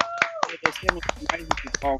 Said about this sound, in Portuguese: Vai começar o nosso segundo episódio da nossa segunda temporada. Quem diria, gente? Palmas pra gente.